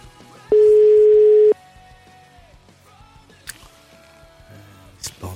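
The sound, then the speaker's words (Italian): A single loud burst of a telephone ringing tone on a quick outgoing call placed during a live radio broadcast, a steady one-second beep, followed by quiet line hiss with faint background murmurs and a few soft clicks. “Fare una telefonatina al volo io, al volo mancava, così adesso.”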